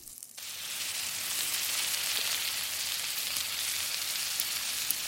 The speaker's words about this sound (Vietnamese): Họ cũng tìm một bàn còn trống có thịt đang chín xèo xèo trên vỉ nướng.